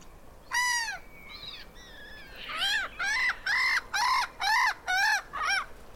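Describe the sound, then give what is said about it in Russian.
Black-headed gull calling: a few drawn-out cries, then a steady run of about six harsh, repeated squawks, loud and clear with no voices present. “Вот послушайте, например, как кричит озерная чайка.”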